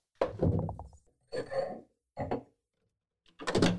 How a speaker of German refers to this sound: So, es scheppert ein bisschen, da wird die Flasche rausgeholt aus genau. dem sodastream gerät